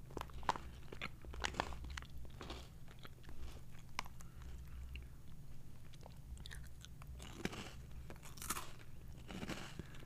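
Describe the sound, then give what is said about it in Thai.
Crisp crunching of a salty cracker being bitten and chewed, with repeated sharp crackly bursts in an irregular rhythm over a low steady hum, no talking. “ขอเดาแล้วกันว่า สิ่งนี้นั้นน่าจะเป็นเหมือนน่าจะเป็นรสชีสมั้งคะอ๋อใช่เป็น salty cracker ค่ะเป็นแครกเกอร์ เกลือเอากันไกตัดก่อนแกะออกมาแล้วลองชิม แผ่นแรกดู”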